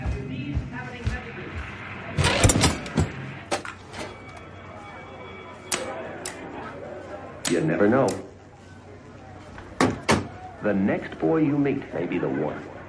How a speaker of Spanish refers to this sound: Golpea la mosquitera.